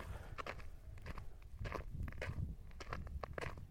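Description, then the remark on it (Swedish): Steady footsteps walk outdoors over rough, slightly crunchy ground, about two steps per second, clear with no talking. “Det är klart att den här marken som jag går på den ägs ju av någon.”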